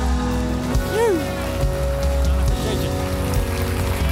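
A large crowd claps and cheers steadily to welcome a pastor, a dense, continuous wash of applause, with sustained musical tones humming underneath and a brief voice rising over it.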